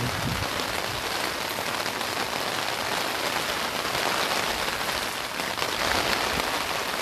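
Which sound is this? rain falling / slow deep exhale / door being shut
rain falling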